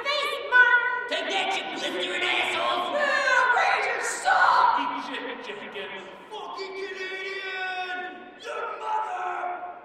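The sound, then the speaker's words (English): Baseball fans at a Tuesday night game in early June shout and jeer over one another in a continuous rowdy stream, loud, strained, bellowing cries rising and falling throughout like an agitated stadium crowd taunting. “With a run on the board, the fans' mood shifted from sullen and chippy to aggressive and taunting. Fiery verbal jabs erupted like little volcanoes of vitriol.”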